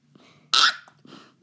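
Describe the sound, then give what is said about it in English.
A person does a quiet vocal imitation of a dolphin scream: one short, strained, raspy squeal lasting a fraction of a second, then softer breathy noises trailing off. “I was jumping up and down and I have this dolphin scream. I can't do it right now because it'll wreck the speaker and you guys will probably leave.”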